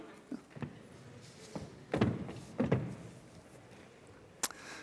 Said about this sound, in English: Do you mind if I move your chair? No. Do you mind if I move it?